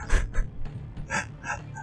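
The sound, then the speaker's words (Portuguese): A door creaks open in a few short, strained groans, the hinge squeaking in bursts over about two seconds, with no one talking. “abriu a porta porque ela tá com uma máscara de esfoliação.”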